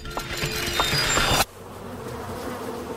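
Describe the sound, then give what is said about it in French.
A mosquito's high-pitched whine drones steadily for about a second and a half, then cuts off abruptly, leaving only a quiet background hum. “pourquoi euh, ils nous piquent les moustiques”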